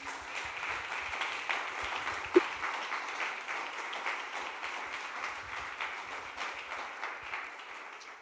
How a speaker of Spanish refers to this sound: Un aplauso para el Señor, que es que es tan lindo.